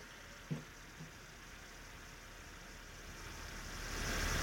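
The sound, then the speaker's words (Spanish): A fidget spinner whirs faintly and steadily after a couple of soft clicks, its airy hum swelling a little louder toward the end, with no one talking. “Ay, pues a mí me gusta entonces los spinners, sí, mira, escucha, a ver si escucha.”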